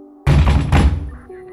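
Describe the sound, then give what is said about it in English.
Two heavy, booming knocks on a door by the FBI at midnight, loud, each ringing out briefly over a low sustained musical drone. “All of which brings us back to Professor Xi and that midnight knock on the door from the FBI.”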